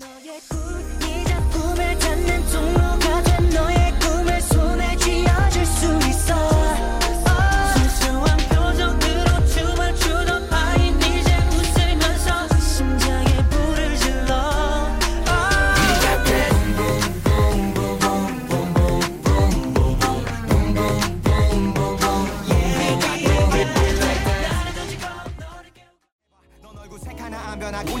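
An upbeat pop song plays loudly throughout, with a driving steady beat, punchy bass and bright layered synths, briefly cutting out near the end before kicking back in.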